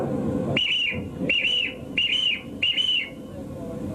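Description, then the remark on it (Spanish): A boatswain's whistle sounds four short, shrill, evenly spaced blasts, each held briefly at a steady high pitch, over a low background rumble, as a ship's crew reviews whistle commands with the boatswain. “Mientras el capitán se preocupa, la tripulación revisa las órdenes de silbato con el contramaestre.”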